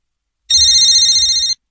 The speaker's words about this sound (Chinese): 突然，刺耳的电话铃声响起来了